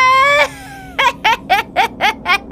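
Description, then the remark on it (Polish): A human voice imitates a creature's shrill, drawn-out shriek, then breaks into a quick run of about six rhythmic giggles, loud with no other talk. “albowiem nad ich głowami rozległ się wrzask.”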